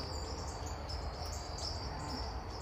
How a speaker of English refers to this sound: Okay, this is your post daylight savings bird song report. Everybody's popping off in the bamboo.